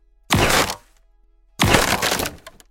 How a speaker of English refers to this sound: With big swipes of your tail, you start to crack and shatter it, bit by bit.